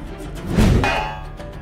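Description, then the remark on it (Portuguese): A heavy punch from Kandor thuds against the metal helmet of a troglodyte creature lying on the ground, and a single loud metallic clang follows, its bright ringing tone fading over about half a second. No voices. “O soco de Kandor reverberando ali no elmo do bicho e a cabeça do bicho afunda 30 centímetros na areia de tão forte que foi.”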